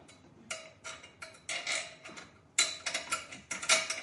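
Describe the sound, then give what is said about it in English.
A hand ratchet clicks in repeated bursts of rapid ticks as a fitting is tightened, the strokes fairly loud, with brief pauses between each pull and no talking. “And I'll tighten it off.”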